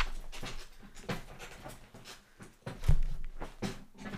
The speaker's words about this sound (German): was natürlich dazu führen könnte, dass Störgeräusche vermehrt auftreten, sei es durch meinen Stuhl, in dem ich mich befinde. Achtung, ich lehne mich mal zurück.